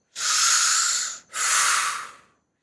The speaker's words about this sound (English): They're just like restricting their air, restricting the breath.